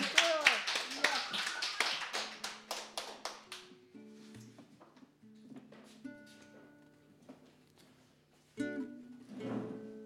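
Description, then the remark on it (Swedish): A burst of applause for a performer about to sing a classic song, dense sharp claps for about four seconds that thin out and fade, followed by sustained tones and a singing voice starting up. “Ja, stor applåd!”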